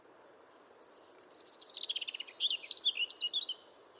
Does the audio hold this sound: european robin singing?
yes